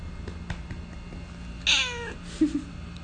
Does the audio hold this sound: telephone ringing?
no